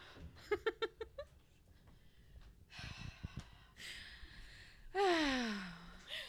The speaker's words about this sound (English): the cat. That was great. Interrupting.